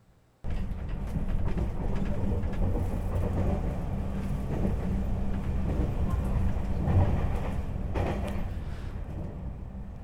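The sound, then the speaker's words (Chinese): A train rumbles steadily along the rails, its low, heavy roar rocking and clattering continuously for the full stretch after a brief silent start, with scattered rattles over the deep drone. “你听着这个声音呢，这个火车这样摇摇晃晃的声音呢。”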